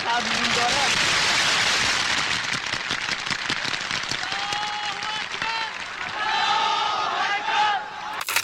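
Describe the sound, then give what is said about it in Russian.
A large crowd, meant to stay silent during a speech, cheers and shouts in a dense, continuous roar at the speaker's words, with scattered high-pitched whoops and voices rising above the noise, swelling again near the end. “Толпа, кстати, должна была сохранять молчание, но на этих словах она не сдержалась и заликовала, заполировав традиционным уже и всем знакомым возгласом, который сопровождает каждую священную войну Ближнего Востока.”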